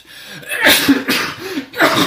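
A loud sneeze bursts out with a sharp, breathy rush of air, followed by another gusty exhale moments later; no one speaks.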